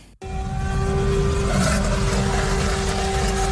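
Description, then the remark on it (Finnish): The engine of a new-model Toyota C-HR small hybrid car, not running on electric power, revs steadily and loudly after a brief cut-in, with a sustained tonal hum riding over a dense low rumble for a few seconds. “Ärhäk, ärhäkkää oloinen niin tota... Ei ole sähköä. Toi, Toyota C, CRH, uusi malli.”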